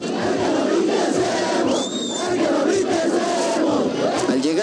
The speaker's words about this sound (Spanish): Comenzaron los gritos de amenazas, de burlas. Escuchen este grito, el que no brinque es emo.